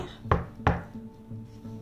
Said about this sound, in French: On frappait à la porte.